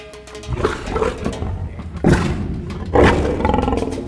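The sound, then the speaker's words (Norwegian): A lion roars in deep, rumbling bursts, with two strong onsets around two and three seconds followed by grunting, growly tails. Loud throughout, with no talking. “Oi, ganske brummete.”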